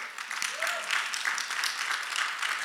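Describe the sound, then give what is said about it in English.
A crowd claps steadily during a sermon, a dense, fairly loud patter of many hands with no pauses, plus a brief faint vocal whoop early on. “Go ahead, clap for it.”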